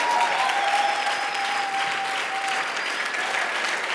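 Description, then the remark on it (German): A large church audience applauds loudly and steadily for its Dream Team volunteers, dense clapping filling the space with a few whistles cutting through, sustained without pause for the whole stretch. “Aber von jedem von euch, der sich in diese Church hineingibt, hey, lass uns mal allen Dream Teamern echt den größten Applaus geben.”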